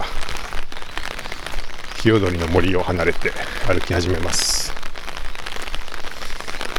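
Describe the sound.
Steady rain patters and hisses throughout while someone walks outdoors, with a man speaking briefly in the middle over the constant wash of falling drops.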